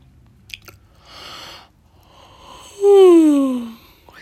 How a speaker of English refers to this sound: Sorry, guys, if I'm yawning, I'm just very tired.